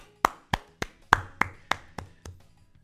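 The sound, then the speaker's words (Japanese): A single person claps hands eight times in a steady, even rhythm, sharp crisp slaps that grow a little softer toward the end, with no talking. “いつもならここで何の拍手やって突っ込んでくれる方がいるのが今日はちょっといないですね”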